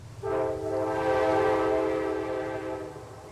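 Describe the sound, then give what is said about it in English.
A coal train's horn blares in a long, steady chord over a low engine rumble, echoing off the steep mountains near Hazard, Kentucky, in the afternoon. No voices are present. “The sound of a coal train echoes off the steep mountains near Hazard, Kentucky, as it does every afternoon.”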